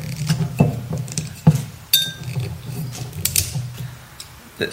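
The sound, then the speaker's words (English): A wine bottle's screw cap is twisted open, its seal giving way in a series of sharp clicks and ratcheting creaks over a few seconds, with no talking. “some people don't find it that romantic to snap the screw cap off”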